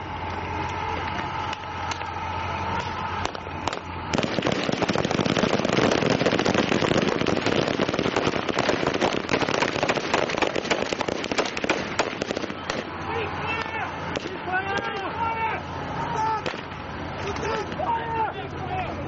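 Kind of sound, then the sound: impact, police gunfire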